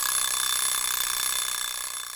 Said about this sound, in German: Nach drei Minuten klingelt der Wecker und dann ist auch wirklich Schluss.